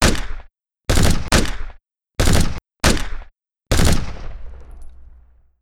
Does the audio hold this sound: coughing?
no